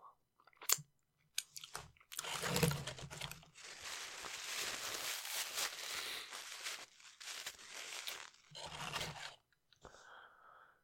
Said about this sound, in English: Uh, but yeah, I hope you guys enjoyed me uh, chatting and chewing in your ears.